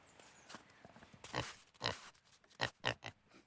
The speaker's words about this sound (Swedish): Mm, nu går vi grisarna. Kom så går vi en liten promenad. En eh, liten annorlunda promenad. Jag har ju bara gått ut med hundar och hästar. Nu, nu vill han inte gå riktigt.